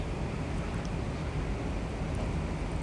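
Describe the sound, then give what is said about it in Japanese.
Light, easing rain patters steadily at Hanyu Parking Area in Japan, forming a continuous hiss with no distinct individual drops. No voices are heard. “でもまあ随分とおとなしくなったので平和です傘えっ、ー、とまあパラパラ降ってるんだけど今いる羽生パーキングエリアで車から降りる人は傘を持っていない人がほとんどですパラパラ降ってんだけどね”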